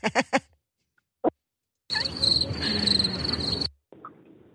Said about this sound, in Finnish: Ei, mä oon tässä ja laitoin just heinäsirkat soimaan.